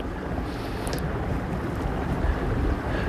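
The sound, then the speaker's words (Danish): A small boat moving slowly across open water toward two ringed seals, with a steady low rumble and rushing wash, and wind buffeting the microphone throughout. No one speaks. “Og han sejler med lav fart hen mod de to sæler, der ligger og leger.”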